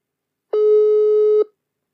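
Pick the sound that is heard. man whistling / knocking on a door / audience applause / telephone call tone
telephone call tone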